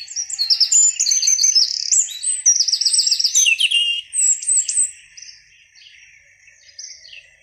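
Bright, busy birdsong with rapid chirps and trilling tweets, loud for about five seconds, then fading to softer, sparser calls.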